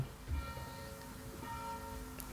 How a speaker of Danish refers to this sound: Som I ser, det hører i det andet kirkeslag ringe.